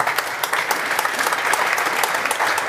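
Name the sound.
audience applause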